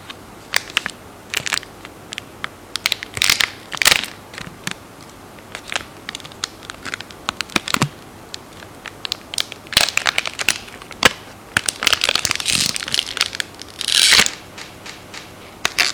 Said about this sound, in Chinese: 听见了吗？这是撕巧克力包装的声音。